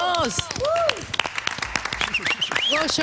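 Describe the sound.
An audience at a radio and YouTube show breaks into steady, dense applause for a band giving a mini recital, sharp claps packed together, while cheering voices and rising, falling whoops ring out over the clapping throughout.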